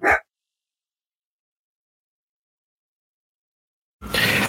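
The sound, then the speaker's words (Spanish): The speaker's own dogs barking in the background: a single sharp bark, followed by a few seconds of silence before another loud, rough burst of barking near the end. “perdón, es que mis perros ya se, dan, cuenta que, que, son miércoles de hablando de cómics y también quieren participar, por eso sus ladrillos ahí en el fondo.”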